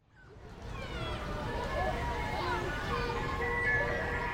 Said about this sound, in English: Oh man, the ice cream truck is coming.